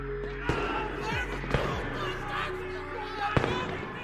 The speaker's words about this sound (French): Une fusillade éclate, les murs tremblent sous l'assaut brutal et un policier tombe blessé.